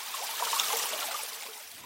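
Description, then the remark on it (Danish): Water, an ingredient for making paper from wood fibres, trickles steadily with a soft, bubbling babble, continuous for a couple of seconds, with no voices. “Så her kommer den anden vigtige ingrediens ind i billedet, nemlig vand.”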